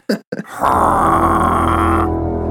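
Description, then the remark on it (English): A man mimics a Gjallarhorn war horn for the Minnesota Vikings with his voice: two short grunting bursts, then a long, steady, buzzing low blast held for about two seconds, loud. “The Minnesota sound the Gjallarhorns off.”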